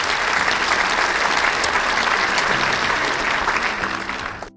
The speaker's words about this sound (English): I'm, I'm bowing. I'm bowing as I hear those applause. Thank you. we have a whole studio audience in here.